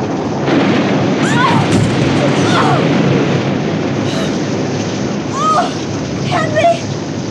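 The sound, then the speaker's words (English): A heavy, roaring rush of water pounds steadily as a large wave crashes over the deck of a lurching boat, loud throughout. Faint voices cry out beneath the din. “the boat gave such a lurching. Flung me out here on the deck.”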